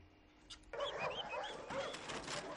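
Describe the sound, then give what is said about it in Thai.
A chorus of puppies yipping and barking over one another, high-pitched and continuous after a brief quiet start, fairly loud with no talking, at the Mexican Army and Air Force dog training center on a military base outside Mexico City, puppies training as rescue and drug- or explosive-detection dogs. “ลูกสุนัขทั้งหลายที่วันหนึ่งจะกลายเป็นสุนัขกู้ภัย หรือสุนัขดมกลิ่นเพื่อค้นหายาเสพติด หรือวัตถุระเบิด ได้รับการฝึกขั้นพื้นฐานที่ศูนย์ฝึกสุนัขของกองทัพบบกและกองทัพอากาศของเม็กซิโกค่ะ”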